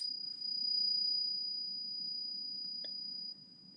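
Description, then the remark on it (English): A struck metal coin rings on with a thin, steady high-pitched tone, sustained and fairly faint over a low background rumble, with one brief tap partway through. “It's still is, um, faintly um, ringing.”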